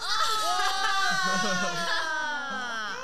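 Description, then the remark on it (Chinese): A baby still at the bottle-feeding stage lets out a loud, continuous, wavering wail for about three seconds, a high, whiny fake cry with warbling pitch and no pauses. “太大声了， 对，太大声了， 太大声了， 没有没有，那惊吓过度， 没有，他假假哭一下，嘿，假哭一下，嘿，”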